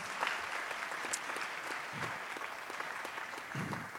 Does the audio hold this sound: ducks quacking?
no